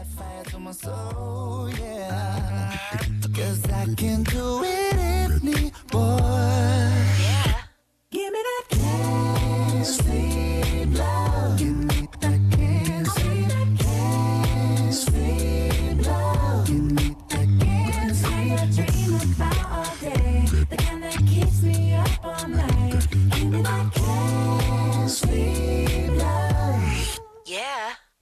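An a cappella group sings a song in tight harmony, voices stacked over a punchy vocal bass line that pulses in a steady rhythm, loud and continuous with one brief pause near the start.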